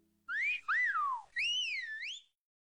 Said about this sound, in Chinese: 有人吹起了口哨。